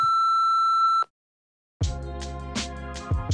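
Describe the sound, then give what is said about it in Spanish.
A single steady voicemail beep tone sounds for about a second, clear, then cuts to silence before music with a thumping beat starts up. “El podcast al que llama está apagado o fuera de cobertura. Por favor, deje un mensaje después de la señal.”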